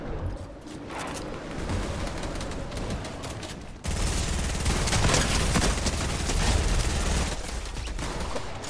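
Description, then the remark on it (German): Dense, sustained automatic gunfire from small minion characters in a video game, rapid overlapping shots spraying continuously and growing louder and fuller partway through, with no talking over it. “Es nervt mich diese kleinen Minions, die nichts können außer rumsprayen.”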